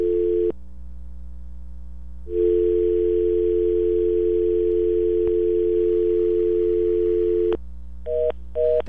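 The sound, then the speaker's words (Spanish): A steady telephone dial tone hums on an open line with nobody speaking, briefly cutting out near the start and then returning with a couple of short clicks and beeps at the end. “teléfonos hoy están, están en huelga.”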